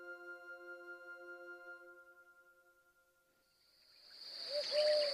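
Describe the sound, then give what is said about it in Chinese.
An owl hoots at night on the hill behind a village: a steady, low, wavering tone that fades away, then a louder burst of shrill, chirping and squealing calls rises at the end. No voices are heard. “后山上，猫头鹰咕咕地叫着。”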